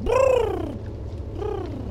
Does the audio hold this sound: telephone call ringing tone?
no